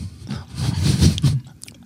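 Someone chewing and eating food, with moist, crunchy bites repeating irregularly for about two seconds. The chewing is fairly loud and heard on its own, with no talking.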